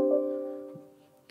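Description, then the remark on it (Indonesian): A Windows computer notification chime rings out once, a clear tonal ding that fades away gradually over about a second, with no talking. “Mungkin dia bunyi sendiri kan Namanya Windows bisa bunyi sendiri”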